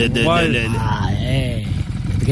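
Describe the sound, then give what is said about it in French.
A voice mimics a Harley-Davidson motorcycle engine revving while the bike is stopped, rising and falling in pitch over a steady low rumble, fairly loud for a couple of seconds. “il est-tu obligé de craquer sa, moto de même là, quand il est arrêté?”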